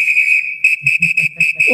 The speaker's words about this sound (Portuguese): Então, o apito foi na hora certa.